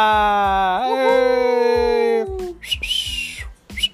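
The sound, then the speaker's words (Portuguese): A voice whistles an imitation of fireworks: a rising tone sweeps up and holds for a couple of seconds, then breaks into a short, noisy crackling burst, fairly loud. “Fogos, fogos. Eu sou péssimo para imitar fogos, assobio, nem sei assobiar direito e tal,”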